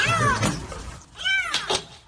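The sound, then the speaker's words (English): A kitten stuck behind a wall in Australia, which firemen drilled into to find it, meows twice, thin high-pitched cries, each rising then falling, with a couple of short sharp bursts of noise between them and no talking. “It's a little kitty.”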